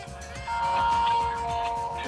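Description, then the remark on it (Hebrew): A telephone ringing tone, calling the phone of Knesset member Aida Touma-Sliman, plays as a steady, sustained electronic pitch, starting a moment in and continuing to the end over a low, busy background hum. “זה הטלפון של עאידה תומא סלימאן, חברת הכנסת מחדש.”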